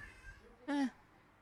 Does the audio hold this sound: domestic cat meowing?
yes